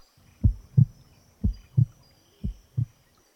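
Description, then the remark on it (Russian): A heartbeat thumps in three paired lub-dub beats, low and muffled, evenly spaced with brief silences between, moderately loud with no voices. “Ты мое сердце?”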